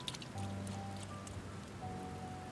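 Steady rain patters down over a low background hum, with scattered drops ticking sharply on a surface. No one speaks, and the downpour stays even throughout.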